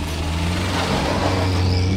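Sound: car driving off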